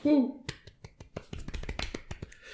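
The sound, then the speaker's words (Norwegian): A short voiced whoop opens, followed by a burst of quick, uneven hand claps from a small group, fairly loud, lasting about two seconds. “Jeg syns vi, vi, skal ta en eh, liten jubel for det.”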